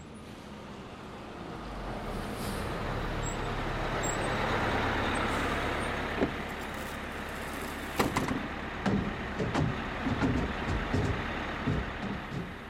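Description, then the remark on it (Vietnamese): A village bus engine rumbles as a young man throws himself aboard, swelling into a broad hiss like air brakes releasing, followed by a series of sharp clunks and knocks over the last few seconds. No one speaks. “chàng trai quăng mình lên chiếc xe buýt làng như một gói hàng.”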